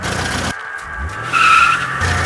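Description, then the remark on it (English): A car roars in close and fast, then its tires let out a loud, shrill skid that peaks sharply before the engine noise carries on, with no voices. “Suddenly, it got close and fast. The car was on me.”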